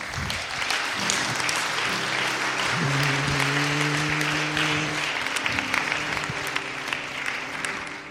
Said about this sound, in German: Komm, wir geben mal einen Applaus für die Leute.